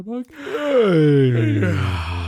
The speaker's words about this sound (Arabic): عطني بس اول شيء تثاؤب كبير